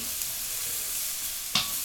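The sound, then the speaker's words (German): Aubergines for baba ganoush sizzle on two steaming hot plates, their skins charring, in a steady, hissing crackle that holds at an even level throughout, broken once near the end by a brief scraping knock, as if stirred. No one speaks. “Also hier passiert jetzt ordentlich was. Zwei dampfende Platten.”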